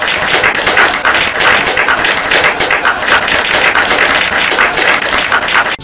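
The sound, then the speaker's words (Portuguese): Loud, dense hand clapping, a rapid crackle of many overlapping claps that keeps up steadily for about six seconds with no talking over it. “estão escutando batendo palmas?”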